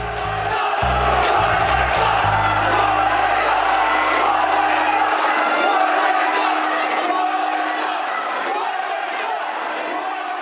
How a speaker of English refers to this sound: That year, you saw angry dudes waving signs that said, Twilight ruined Comic Con and Nosferatu didn't sparkle and a young, mostly male crowd stormed through the convention halls chanting, Twilight sucks.